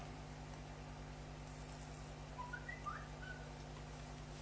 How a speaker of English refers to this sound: Hello. No need to whistle at me.